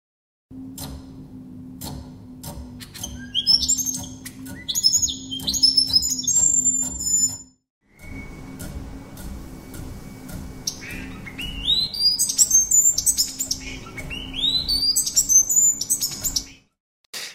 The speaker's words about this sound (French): ultra rapide, eh bien, c'est un signal de parade nuptiale cet oiseau qui fait ses claquettes, en fait, il y a aussi un effet d'audience parce que quand le nombre d'oiseaux qui les regardent augmente, ils augmentent le rythme de leur claquette.